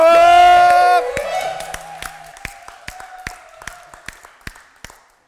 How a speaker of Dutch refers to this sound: Jongens, dames en heren, applaus. Voor het gezelschap!